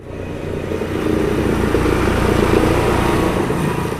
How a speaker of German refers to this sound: Der Traktor wird jetzt gleich einen Teil der Böschungen entlang der Entwässerungsgräben bei Eppisburg im Landkreis Dillingen mähen.